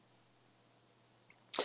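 A single sharp sneeze bursts out near the end after a stretch of quiet background hum, fairly loud, cut off abruptly.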